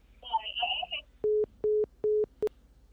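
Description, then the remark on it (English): A brief warbling electronic sound gives way to a phone line's disconnect tone after the call hung up: three steady, evenly spaced beeps at a low pitch, with a fourth cut short, loud and clear. “Yeah, the phone hung up on us, man.”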